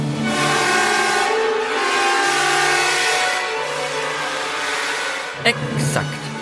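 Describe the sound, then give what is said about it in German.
An orchestra plays a dense, wavering, dissonant passage by Richard Strauss imitating a flock of bleating sheep, sustained and fairly loud, with a couple of sharp bursts near the end. “Hört sich ja an wie zwei Dutzend hungrige Schafe auf dem Weg zum Stall.”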